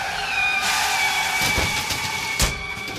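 A getaway car's engine roars steadily at high speed with a whining tone as it speeds off from outside a bank, broken by two short, sharp bangs near the end as it crashes into a flower stall and a water hydrant.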